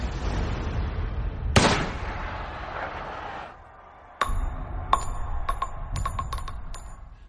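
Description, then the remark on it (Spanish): A single sharp rifle shot, the first shot fired by Lee Harvey Oswald from a book depository window at the presidential limousine in Dealey Plaza at 12:30, cracks out over a loud, rumbling crowd-like background and trails off; after a short lull, a series of bright metallic pings and clicks follows. “Sonó el primer disparo.”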